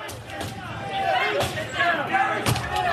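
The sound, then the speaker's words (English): Heavy, irregular thuds of men banging on doors, with three or four loud impacts over a few seconds, reverberant, beneath a busy murmur of many voices shouting and talking. “These guys start picking at the doors.”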